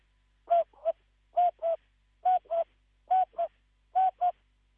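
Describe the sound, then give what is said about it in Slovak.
A voice imitates a cuckoo clock striking half past seven, giving five evenly spaced two-note "cuck-oo" calls, clear with short pauses between them and no other sounds. “dneska sa ja zahrám na tie kukučkové hodiny a odkúkame pol 8, skoro bude, tak ja odkúkam kukučkov”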